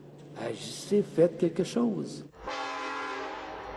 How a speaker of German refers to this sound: Die Züge mit dem Frackingöl rollen weiterhin durchs Land. Tickende Zeitbomben.